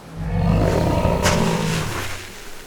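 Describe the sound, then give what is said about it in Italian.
A polar bear, moving a paw onto a snow bridge, lets out a deep, rumbling growl that swells and holds for a couple of seconds before fading, loud with no other sounds around it. “L'orso sembra aver capito, Nix. Adesso muove una zampa sopra il ponte”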